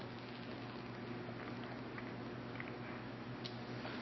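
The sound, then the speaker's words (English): Faint, sporadic crinkles of a plastic bottle of bottled water with soft liquid sounds as someone takes a drink of water, in Oklahoma, over a steady low electrical hum, with no talking. “I'm getting a drink of water here, that's what that crinkling noise is, is my uh, bottled water, but let me get a drink real, real quick, hold on.”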